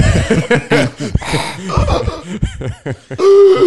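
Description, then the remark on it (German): A voice imitates snoring with a run of rough, rasping snorts and throaty breaths, ending in a longer, sustained nasal drone, fairly loud throughout. “Deutlich näher dran als dieses zarte Filmschnarchen, das du da gerade von dir gegeben hast.”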